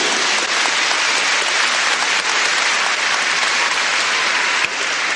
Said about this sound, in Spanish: Eso, den un aplauso, por favor.